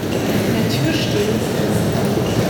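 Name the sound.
train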